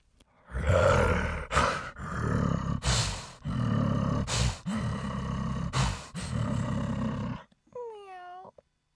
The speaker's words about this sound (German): Echte hungrige Tiger.